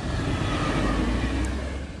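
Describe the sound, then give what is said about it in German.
A train passing in the other direction: a steady, dense rumble with heavy low-end roar and hiss across the range, holding at an even loudness throughout with no voices. “Und der Zug in die andere Richtung.”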